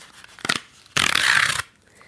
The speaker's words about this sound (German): Und übrigens äh, nebenher, ich will jetzt auch mal hier die Schokolade aufmachen.